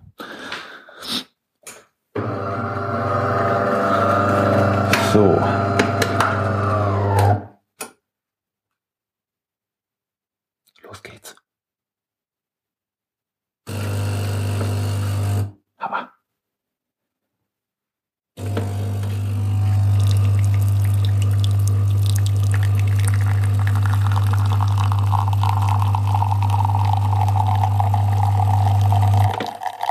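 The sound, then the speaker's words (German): A fully automatic coffee machine grinding and brewing a small cup of fresh coffee hums loudly with a steady low pump drone, stopping and restarting in bursts, while liquid trickles and hisses faintly over it. “So klingt frischer Kaffee, genau.”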